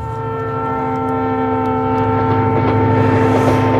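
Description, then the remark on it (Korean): An old-style train rumbles past, a loud, steady mechanical drone with a sustained tonal hum and faint rhythmic clatter, swelling slightly louder toward the end. No voices. “야, 추억추억한 소리 한 번 더 들을까요? 기차 소리?”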